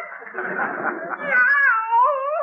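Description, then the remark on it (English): A cat yowls loudly in a strained, wavering wail that rises and bends in pitch, as if being choked, preceded by a rough, scratchy burst of noise, lasting a couple of seconds. “Louis Costello, stop choking that cat.”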